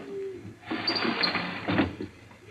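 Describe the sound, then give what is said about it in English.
A carrier pigeon with a note slipped under its wing is released from a loft and takes off with a burst of rapid wing flapping, a brisk fluttering rush lasting about a second, then fading to quiet. “Carefully, he wrote a note slipped it under a pigeon's wing.”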